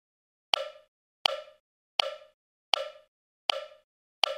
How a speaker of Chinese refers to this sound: 汉堡姐姐，你在敲什么啊？声音很好听。 这个是木鱼呀，你看它的形状，前面圆圆的，后面扁扁的，是不是很像一条鱼？